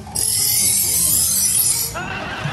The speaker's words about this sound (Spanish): Voy a amarrarles la navaja, porque los gallos tienen que llevar una navaja y bien afilada. Deje y afilo esta navaja.